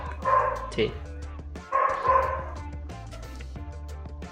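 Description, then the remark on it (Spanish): Dogs bark in short bursts, two loud volleys about a second apart with a yip between, while a person speaks briefly over the commotion. “Dale, perdón por los perros que se escuchan.”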